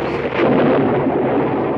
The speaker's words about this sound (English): And a storm at sea can be pretty scary, too. Every crack of thunder sounds like it's gonna split you right in two.